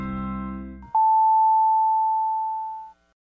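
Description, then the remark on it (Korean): A Korean radio time signal marking 6:30, presented by the LG Cord Zero A9 Compressor vacuum: one long, steady, high electronic beep lasting about two seconds, loud and clean, following a brief tail of music or low sound. “세상의 청소를 또 한 번 혁신한 LG 코드 제로 A9 컴프레서가 6시 30분을 알려드립니다.”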